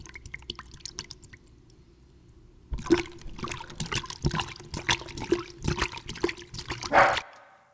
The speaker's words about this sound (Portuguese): era um cachorro bebendo a água na qual a pessoa estava lavando a bunda